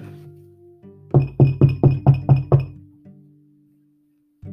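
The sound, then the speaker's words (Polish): Seven quick, evenly spaced knocks on a door by couriers from a bookshop, loud and sharp with a slight hollow ring, over a faint low hum with no one speaking. “Do drzwi zaczęli pukać kurierzy z księgarni.”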